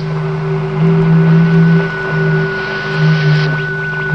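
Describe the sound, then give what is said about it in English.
Radio impulses from the planet Venus: a steady electronic hum with several sustained droning tones over a bed of crackling radio static, swelling slightly in loudness, with no voices. “There's no reason that Venus shouldn't radiate impulses. I don't mean the static.”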